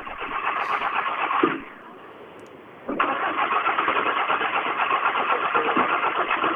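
A driver's rally car engine cranks and churns loudly during the first stage of this year's Swedish rally championship (SM). It drops to a brief lull after about a second and a half, then catches again in a rough, pulsing roar as it struggles to start.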